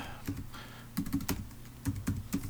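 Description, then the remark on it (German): Keys are tapped on a computer keyboard in short irregular bursts, sharp clicky strokes with brief pauses between clusters, fairly quiet and with no voices, as the password for root, the system administrator, is typed in twice. “Zunächst das Passwort für Root. Ähm, das gebe ich zweimal ein.”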